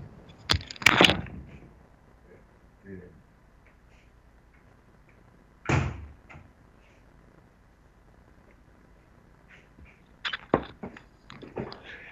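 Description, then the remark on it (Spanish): A window or door being shut, with a couple of sharp bumps and rattles early on, another clunk midway, and a cluster of clatters near the end, separated by quiet background. “Sí, claro, esperen que voy a cerrar acá porque hay mucho ruido de ambiente, esperen.”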